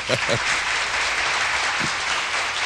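sound effect, applause sound effect

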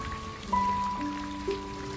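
nature, rain falling

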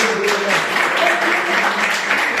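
crowd, audience applause

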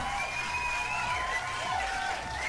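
crowd, applause and cheering

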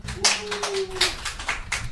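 crowd, audience clapping hands

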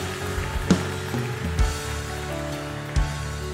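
crowd, audience applauding loudly

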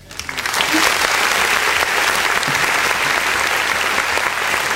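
crowd, applause

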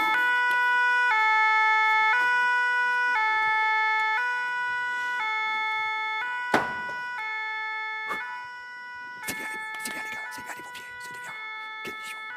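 vehicle, fire engine siren

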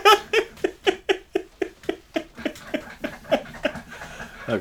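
household object, squeaking chair

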